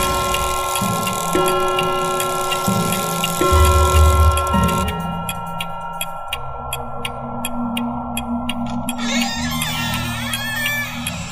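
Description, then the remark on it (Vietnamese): A clock ticks in a steady, crisp rhythm, the ticks standing out most clearly midway through over a low, sustained droning background, with no one speaking. “Lúc này kim đồng hồ đã dịch chuyển có 3 giờ sáng”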